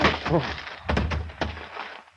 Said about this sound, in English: The blow had been sharp, but without much force.